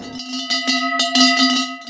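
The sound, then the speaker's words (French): A large cowbell, dedicated to skier Alexis Pinturault with his portrait painted on it, clanks repeatedly in quick, uneven strokes, its bright metallic ring sustaining a steady low tone between hits. Loud and alone, with no voices. “C'est une grosse cloche euh, de vache, évidemment.”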